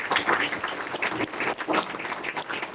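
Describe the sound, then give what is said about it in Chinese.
An audience at a 聚磊电商 (Julei E-commerce) company meeting breaks into sustained applause after an announcement that the company will bring home three major awards, a dense, crackling wash of many hands clapping at once, steady and moderately loud throughout with no voices standing out. “此时应该有一些掌声。”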